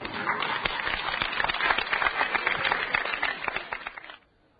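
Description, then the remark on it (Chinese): An audience at an errenzhuan (Chinese folk duet) show applauds steadily for about four seconds as a performer is called out onto the stage, a dense, crackling wash of many hands clapping at a fairly even loudness. It stops abruptly, leaving near silence. “好了，呃，出来吧，观众都鼓掌了。好了，再次鼓掌来。”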